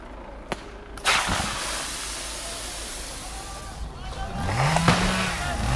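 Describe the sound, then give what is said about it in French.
A chainsaw engine revs and whines up and down as it saws trees in a forest next to a police line, amid steady outdoor rumble, with a few sharp bangs cutting through and voices faintly in the background. “il y a une tronçonneuse qui était sortie dans, dans la forêt juste à côté de la ligne de keuf et on est en train de scier des arbres pour les empêcher de passer.”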